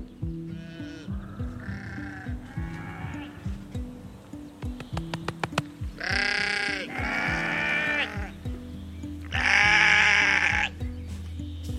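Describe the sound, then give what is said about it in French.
A flock of about forty sheep on a small farm bleat loudly, calling over one another with quavering cries, the longest and strongest bleats rising near the middle and again toward the end. “voilà, petit élevage, on a une quarantaine de moutons.”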